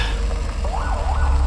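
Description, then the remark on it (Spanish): A police siren wails in rising and falling sweeps over a low rumble of traffic or engine noise, with no talking; a police car behind a driver is signaling the driver to stop. “De repente, unas luces muy altas me encandilan por detrás y escucho a la policía hacerme las señales para que me detenga.”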